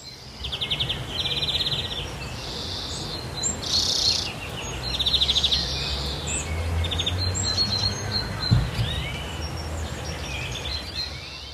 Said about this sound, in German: Da hört man den Grünling, also zumindest einen. Im Hintergrund war auch noch was, das habe ich jetzt nicht ganz gehört man muss immer dazu sagen, es singt ein Vogel nicht allein.